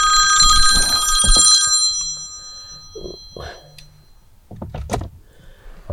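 A telephone bell rings loudly for under two seconds with a bright metallic jangle, followed by scattered handling clicks and soft knocks, with a few muffled thumps near the end.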